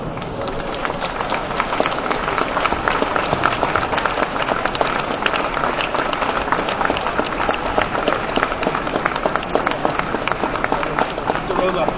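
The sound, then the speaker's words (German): A dense, steady burst of audience applause welcoming comic artist Don Rosa, many hands clapping at once in a continuous loud crackle that holds evenly for the whole stretch without fading. “Herzlich willkommen und einen kräftigen Applaus für Don Rosa.”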